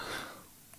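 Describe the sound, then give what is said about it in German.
A single short, breathy sneeze bursts out at the start and quickly trails off into quiet air. It is fairly soft, with no talking around it. “Gesundheit.”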